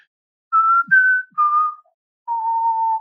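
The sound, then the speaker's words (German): A clear whistled film melody of a few sustained, pure notes stepping up and down, ending on a long held tone after a short pause, with no talking. “Ich habe bestimmt die Melodie aus ähm, Unheimliche Begegnung der dritten Art gepfiffen, weil die so schön einfach ist”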